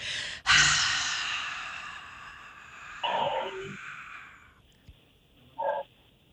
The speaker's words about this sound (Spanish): Suéltalo de golpe. Suelta todo ese aire, suelta todo ese aire. Wow, wow, Wow. Saca todo ese aire de ahí, saca todo ese aire del pecho. Vamos, vamos, sácalo todo.